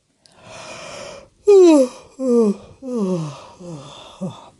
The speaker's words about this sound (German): gähnt. Sie ist jetzt müde, sehr müde.